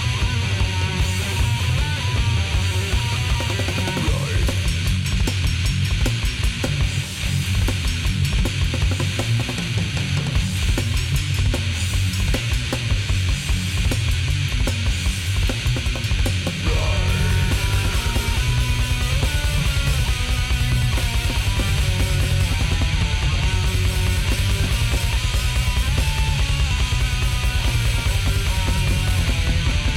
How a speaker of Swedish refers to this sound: Um, men nu ska vi lyssna på någonting som ska vara åt lite så här gammal … gore grind-hållet. Eh, gammalt band från Finland som sagt, återsläpps på både CD och vinyl av Helter Skelter och det låter faktiskt exakt så här.